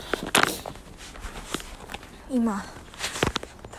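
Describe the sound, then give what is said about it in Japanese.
Irregular footsteps shuffle and crunch along at a walking pace as someone walks toward a waterfall, with a man's voice speaking briefly over them and a short falling vocal sound partway through. “滝に向かって歩いてるんだけど歩いてたどり着くかなって。”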